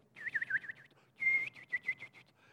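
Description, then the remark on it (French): A person whistles in imitation of birdsong: quick warbling trills and chirps, a sustained high note, then a run of short rhythmic tweets, bright and fairly loud with no talking. “tous les matins, avant que la lumière ne vienne, à l'aurore, les oiseaux commencent à chanter.”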